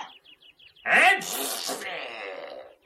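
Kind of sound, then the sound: human body sound, a man sneezing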